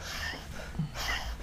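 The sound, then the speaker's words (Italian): A voice imitates the labored, wheezing exhale heard with an ear against a small infant's chest, a sign of bronchiolitis: two strained, breathy puffs of air pushed out with effort, carrying a thin whistling tone, quiet, with no words spoken. “Se avvicinate l'orecchio al suo torace potete sentire dei rumorini tipo”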